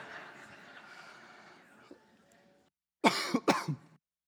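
Two sharp, loud coughs close together near the end, following a stretch of low murmuring background noise that fades to near silence.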